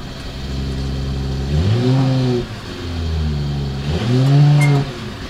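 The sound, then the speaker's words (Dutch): A grey Mercedes SUV, the successor to the Mercedes ML, runs at a steady idle, then is revved twice, each rev rising in pitch and settling back down; no voices. “Ik wil heel graag het geluid horen. Ik sling hem aan voor je.”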